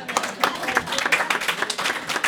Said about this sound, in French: Les citadelles de Rouen-Noranda, mesdames et messieurs, on peut applaudir, on peut applaudir.